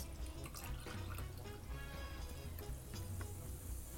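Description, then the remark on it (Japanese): Chocola BB Sparkling is poured into a glass already holding ice and a shaken mix, topping up a passion fruit cocktail, with a steady liquid stream and a bright fizzing crackle running continuously for a few seconds, fairly loud, no talking. “シャワー、シュワーっとしますね。”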